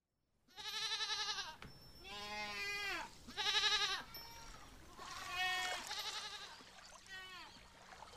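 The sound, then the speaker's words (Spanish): A goat bleats about five times in a row, loud, each cry a wavering, quavering call with short pauses between, over a faint background hiss. “un sonido de cabra hizo despertar al joven, que yacía en una pradera.”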